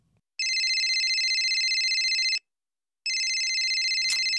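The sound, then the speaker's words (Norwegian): A phone ringtone rings twice in loud, steady electronic bursts of about two seconds each, separated by a short pause, with no one talking over it: a mother calling during a football game. “Det er mora mi som ringer.”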